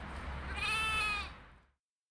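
A single sheep bleats once, a long wavering call lasting over a second, fairly loud, then silence follows.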